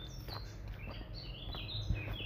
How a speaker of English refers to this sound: Beautiful bird song. just some beautiful bird song. I was hoping to catch it. There's a bit of it. It was lower than that. No, probably doesn't like being recorded.